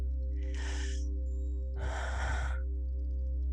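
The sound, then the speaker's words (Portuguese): A deep breath drawn in, a short pause, then a longer, heavier exhale, with a steady low hum underneath and no talking. “Deixa eu respirar aqui.”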